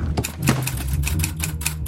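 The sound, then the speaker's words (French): Typewriter keys clack in a quick, slightly uneven run of sharp, bright strikes, about a dozen in two seconds, over a steady low mechanical hum. “des machines à écrire”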